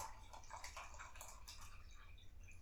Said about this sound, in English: I'm not peeing. I'm pouring water into a cup.